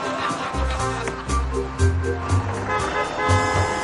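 A bus engine rumbles and rises in pitch as it pulls away, while several short car horn blasts are sounded at a man in a suit who had got out of his car, over the steady noise of traffic.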